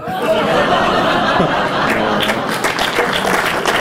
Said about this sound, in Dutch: Ze geven een applaus.